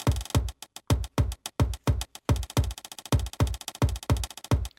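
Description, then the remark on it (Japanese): A punchy percussive beat built from sampled office sounds: a deep thudding hanko seal stamp hit serves as the kick drum while sharp clicky hole punch sounds fill in between, looping in a steady, tight rhythm with no voices. “ヤミーさんのね印鑑の音がキックドラムの代わりみたいになってそこに吉田裕二さんの穴開け機の音が乗ります。”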